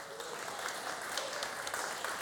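An audience applauds in a steady round, many hands clapping together into a dense, crackling wash that holds an even loudness throughout, with no voices rising above it.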